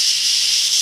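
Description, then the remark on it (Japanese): A voice imitates a shower starting to run in the unit bath of a business hotel room with a sustained, steady hiss, fairly loud, lasting just under a second with no other sounds. “いつ開いたと思ったら、目の前でその2つの扉がパタンってしまって、ユニットバスからプシュ”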